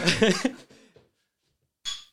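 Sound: beer glasses clinking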